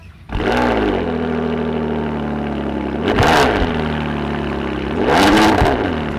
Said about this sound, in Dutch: Weet je van welke auto je zojuist het geluid hoorde?